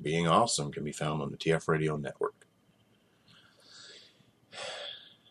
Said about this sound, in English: I just kind of yawned at the same time as saying.